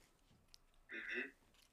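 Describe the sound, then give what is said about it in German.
A single brief, wet chewing smack of someone eating a sausage, a short moist burst of mouth noise amid quiet, followed by a faint click. “Dir gell, viel Vergnügen jetzt noch bei, deinem, bei, der, äh, bei deiner Wurst schmatzen.”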